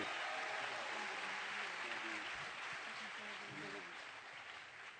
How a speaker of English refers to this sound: Yeah, let's appreciate this right here. All right, let's give them one more round of applause as they seated.